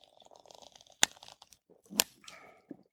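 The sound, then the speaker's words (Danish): Stiff Hanstholm oilskin work clothes creak and crinkle each time the wearers move, a run of soft rustles broken by a few sharp, crackling snaps, with no talking. “Det, man kan høre, det er jo altså vores øh, Hanstholm-habiter, der knærker.”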